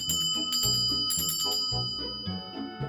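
A small bell rings repeatedly in quick, bright jingles, fairly loud, with sustained high tones lingering between strikes and no voices over it.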